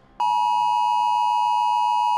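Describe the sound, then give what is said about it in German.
A mobile phone emergency alert tone blares suddenly and holds as one loud, steady, harsh electronic tone with no break, on a Saturday night in Greece, ordering evacuation from a wildfire. No one speaks. “Bis Samstagnacht dann das Handy klingelt.”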